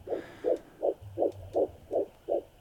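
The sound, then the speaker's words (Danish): A fetal heartbeat of an 11-week-old fetus as heard through a Doppler monitor: rapid, steady whooshing pulses, about seven in quick succession, clear over a faint background hum, with no talking. “Og hun er abortmodstander og synes, det er en god idé, at kvinder i Ungarn nu skal høre fosterets hjertebanken, inden de kan få abort.”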